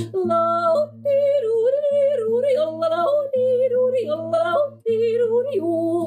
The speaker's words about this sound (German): Nee, ist ein Harzer? ist ein Jodler aus dem Ostharz.